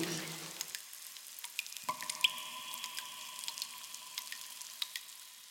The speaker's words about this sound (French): Les seuls bruits qu'on entend dans une grotte, c'est le bruit de l'eau. Ça peut être des gouttes qui tombent, ça peut être euh, des petites cascades, ça peut être euh, le bruit d'une rivière souterraine